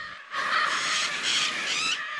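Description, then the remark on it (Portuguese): Lear's macaw squawking calls in the dry Caatinga of the Raso da Catarina region, northern Bahia, Brazil: harsh, raspy, loud cries in a continuous burst of about two seconds, with no talking. “A região do raso da Catarina, no norte da Bahia, é o único lugar do mundo onde a arara azul de Lier pode ser encontrada.”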